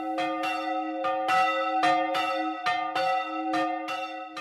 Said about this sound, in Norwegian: Og der hørte vi klokkene i Hedalen stavkirke